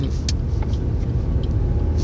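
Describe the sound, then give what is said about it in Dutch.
Steady, heavy low rumble of a car engine heard from inside the cabin while driving, continuous and fairly loud, with faint higher clicks and road noise above it and no talking. “Ik merk dat als ik in de auto zit, dat ik vaak inspiratie heb.”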